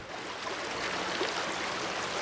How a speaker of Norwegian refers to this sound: Ei rennende og stigende elv. Lyden av rein lykke for en laksefisker. For ei uke siden kunne de gå nesten tørrskodd tvers over Verdalselva her. Men så kom endelig det velsigna regnet